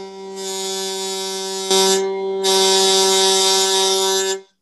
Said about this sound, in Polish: Ale jeżeli zakręcę mocniej, to koło zaczyna strunę coraz bardziej rozchwiewać i ten mostek zaczyna e, uderzać e, o podstawę, na której jest, wydając brzęczący dźwięk.